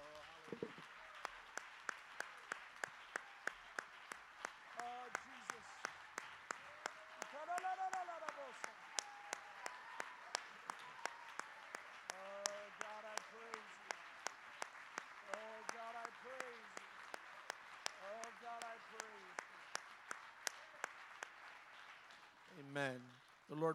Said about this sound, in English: Let's give the Lord a great big hand clap of praise.